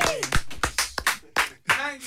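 A small group claps again in a short, uneven burst of applause, the claps fairly loud, with a few voices calling out and whooping over them.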